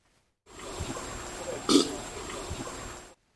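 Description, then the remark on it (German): A deep, rumbling gorilla burp swells briefly near the middle of a short stretch of low, guttural grunting, fairly loud, with no talking. “Ein Gorilla? Ja.”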